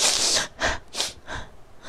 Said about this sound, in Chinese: 大熊用力的擤了擤鼻涕，声音啊大的像汽车喇叭一样